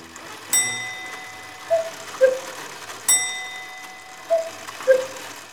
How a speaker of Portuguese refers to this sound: Nesse instante, o relógio da sala bateu três horas da tarde